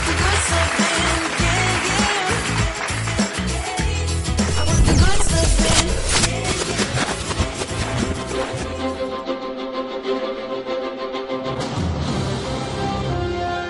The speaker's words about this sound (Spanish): Uy, se me olvidaban. Bueno, pues otro aplauso para todos los enfermeros.